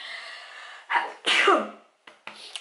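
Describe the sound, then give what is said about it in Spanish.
A single loud sneeze with a sharp inhaled buildup and a forceful burst that trails off, followed by a few small breathy sounds. “Es que tengo unas ganas de estornudar”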